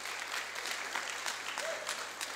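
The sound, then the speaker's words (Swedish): An audience claps steadily, giving applause for Jesus, a dense wash of many hands with no clear rhythm, moderately loud and sustained throughout, with no talking over it. “Så det, det kan vi väl ge Jesus en applåd för det då.”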